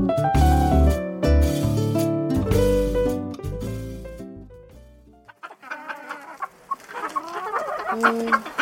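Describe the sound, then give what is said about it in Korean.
A short musical passage gives way to a crowd of live chickens in cages at a poultry market, clucking and squawking together in a busy, overlapping chatter that is fairly loud. The upper cage holds silkie (ogolgye) chickens and the lower cage ordinary chickens. “근데 위에 있는 닭하고 아래 닭이 좀 다르네요?”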